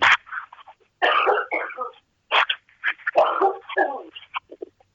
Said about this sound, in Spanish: Mm, perdón, porque voy a toser.